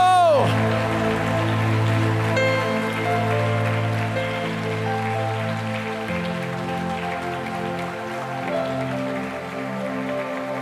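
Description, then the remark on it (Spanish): A church audience applauds the Lord in a dense, steady wash of clapping that lasts about ten seconds without letting up, while sustained keyboard chords hum underneath. “Dele fuerte ese aplauso al Señor.”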